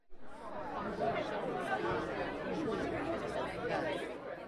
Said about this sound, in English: The second I entered the legendary Apollo Theater in Harlem, I was greeted by a bustling crowd.